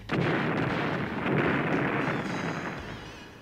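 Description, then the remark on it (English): Heavy gunfire and explosive blasts roar continuously as troops fire on the robot Number Five and blow it to pieces, a dense, loud barrage of booming fire that swells midway and then slowly fades, with no voices. “Number five is blown to pieces by heavy gunfire.”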